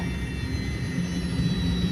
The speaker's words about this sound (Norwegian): Nei, jeg merker jo at flyet begynner å få lavere høyde. Det merker man jo på motoren og ja.